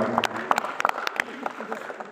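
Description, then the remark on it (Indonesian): An audience applauds a campus theater performance at Unhas, with sharp irregular claps rattling over a steady wash of clapping and crowd murmur, holding at a fairly even level throughout. “teater kampus Unhas tepuk tangan dulu teman-teman dari kampus”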